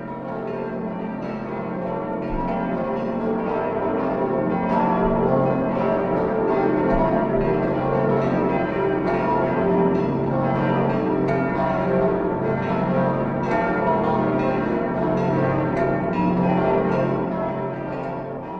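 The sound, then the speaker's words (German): Church bells ring out continuously in a dense, overlapping peal, steady and fairly loud throughout, with no voices. “Da, ich höre die Glocken.”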